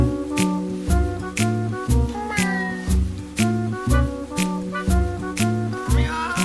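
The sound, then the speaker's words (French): Voices imitate cat meows, sung repeatedly in a bouncy rhythm over upbeat music with a steady beat and bass, loud throughout. “Tout le monde, tout le monde monde sait faire miaou, des gros miaou, des gros miaou de gros matou des petits miaou, de petits minous de rien du tout, tout le monde sait faire miaou.”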